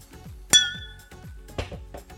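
A bright wine glass clink during a toast with a glass of dark red reserve port rings out sharply, its high tone lingering and fading over about half a second, followed by a softer second clink, with quiet handling noise underneath and no talking.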